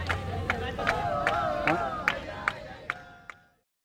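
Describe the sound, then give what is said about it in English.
A passing group claps and dances in the background in a steady beat, about two claps per second, over a murmur of voices and shuffling movement, then the clapping fades out and stops. “After these people clapping and dancing in the background move on, we'll talk to him about why he sticks with it and why he remains hopeful.”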